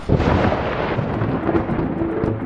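A loud, sustained thunderclap sound effect with a heavy low-end roar that rolls steadily without pause, full, with no voices present.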